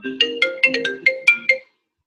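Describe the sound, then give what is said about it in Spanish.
A phone ringtone for an incoming call plays a quick melodic phrase of about eight bright electronic notes, clear, then cuts off into silence. No one speaks over it. “Lo siento, una llamada telefónica.”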